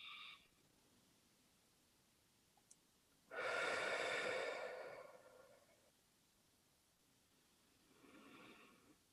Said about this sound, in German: Okay, also immer auf und zu beim Atmen. Das ist eine Übung, womit du deinen Atem erlebbar machst und sichtbar machst.